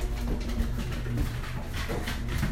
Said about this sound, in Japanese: 犬さんどうしたあよしよしよしよしうるさいねうるさいね